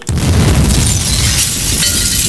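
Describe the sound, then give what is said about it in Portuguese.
A small pen cap hitting the floor, hugely amplified so the drop becomes a loud, booming crash with a rumbling, rattling tail that fills the next two seconds. No one speaks. “Ouça esta tampinha de caneta caindo no chão sem áudio power.”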